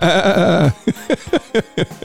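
A loud, drawn-out goat bleat followed by a quick series of short, wavering bleats, with no talking over it.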